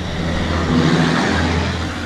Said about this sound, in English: Yeah, and here comes a damn truck. Right. Holy crap.